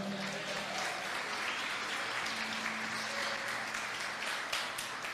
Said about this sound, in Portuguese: Você pode aplaudir a Ele aí por isso.